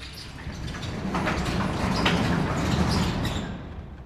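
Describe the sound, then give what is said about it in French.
A sliding door, moved by someone inside, rolls open sideways in one continuous grinding rumble lasting a few seconds, with faint squeaks on top, steady before trailing off at the end. “Quelques instants passent et tu vois la porte coulissante qui commence à se déplacer sur le côté.”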